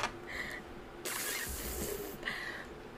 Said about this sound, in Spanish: Un, un globo se desinfló.